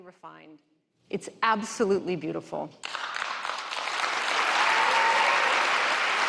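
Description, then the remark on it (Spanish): A person says the MacBook is beautiful, then an audience breaks into applause, a dense, steady clatter of many hands that swells louder and keeps going to the end. “Dicen que el MacBook es bonito y la gente rompe a, rompe a aplaudir.”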